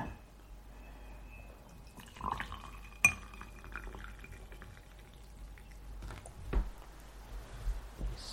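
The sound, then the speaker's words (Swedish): Water pours quietly into a tea cup for brewing green tea, with a sharp clink of porcelain partway through and a few softer knocks and drips near the end. Fairly quiet, with no voices. “Ja, och nu kommer jag och fyller på vatten åt dig också.”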